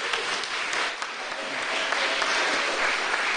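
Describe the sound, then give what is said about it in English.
An audience applauds steadily, a dense, even wash of clapping hands that holds at a constant loudness throughout, with no voices standing out. “You should be applauding her, not me.”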